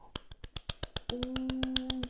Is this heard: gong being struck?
no